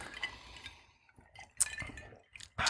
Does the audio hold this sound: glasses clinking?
yes